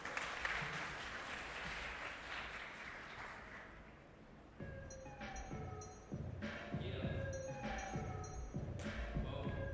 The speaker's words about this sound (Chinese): 所以请问一下，你们好了吗？好了，OK，好，那我们就再一次热烈掌声欢迎他们出场。